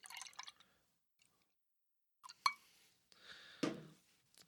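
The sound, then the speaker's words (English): A can of Munich-style brown lager (a Dunkel) from the Kansas City Beer Company is cracked open and poured: a sharp metallic click, then a few seconds of splashing, gurgling liquid, with a brief plop of liquid near the end and no talking. “Oh, crack it, pour it, drink it.”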